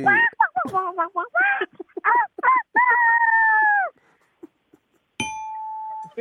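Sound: child imitating a chicken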